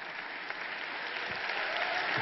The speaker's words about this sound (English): Yes, we finally made it to the end. I expect thunderous applause.